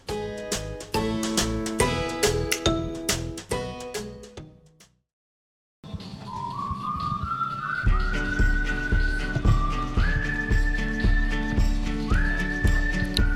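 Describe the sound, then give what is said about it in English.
A whistled melody climbs in short steady steps over a thumping musical backing, coming in after a brief silence that follows a dense burst of music. No one speaks. “I can't whistle. Do you do you suck in or blow out?”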